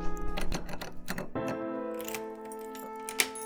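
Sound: key rattling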